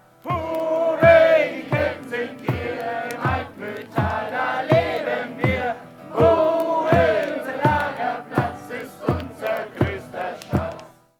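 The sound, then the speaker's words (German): A group of boys chants their specially written cabin camp song, "die Kelten sind hier", loudly in unison at a campfire at a cabin camp above the Almusmühle, driven by a steady beat of sharp claps or stomps about twice per second, with rising and falling melodic lines. “Mit dem eigens gedichteten Hüttenlagersong heißt es zum letzten Mal für heute, die Kelten sind hier.”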